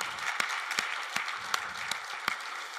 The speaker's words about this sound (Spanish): Dale un aplauso fuerte, si le vas a dar un aplauso, dáselo fuerte al Señor, venga.